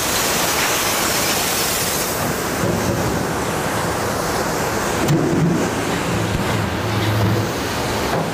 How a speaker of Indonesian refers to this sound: nah dan sekarang mesin yang akan bekerja untuk mencampur.